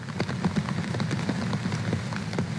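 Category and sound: nature, heavy rain pouring down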